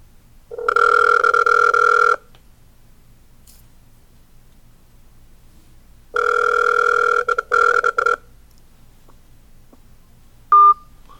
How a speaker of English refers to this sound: And he calls my phone. Just like this. And this is what happens.